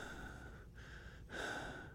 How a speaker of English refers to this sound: This is how … breathes.